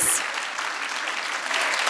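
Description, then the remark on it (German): A crowd claps steadily in a dense, sustained burst of applause, even in loudness throughout. “Und hier einmal Applaus für”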